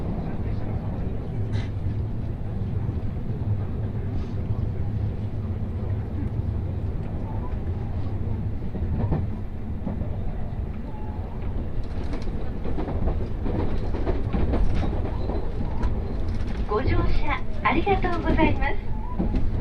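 Steady low rumble of a Tokaido Main Line Special Rapid commuter train running from Kusatsu toward Shin-Osaka, heard from inside a carriage, with rhythmic rail clatter and occasional rattles building louder toward the end.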